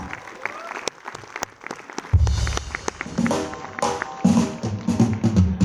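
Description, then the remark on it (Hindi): An audience applauds with dense, irregular clapping that keeps up throughout as a music arranger and the Sargam group are invited onto the stage at a music evening. Partway in, a low rumble and sustained musical tones start beneath the claps. “आप सबकी जोरदार तालियों के साथ”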